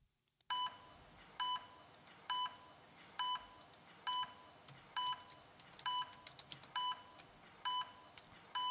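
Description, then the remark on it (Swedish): A heart monitor beeping steadily, about ten short bright electronic beeps at an even pace of roughly one per second, clear over a faint hiss, with no voices. “Det kommer flatlina, det kommer flatlina.”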